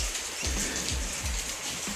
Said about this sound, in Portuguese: Antes de falar, a chuva tá linda, né? Geralmente o pessoal acha que a chuva é feia, mas a chuva tá bonita. Essa chuva tava prometida.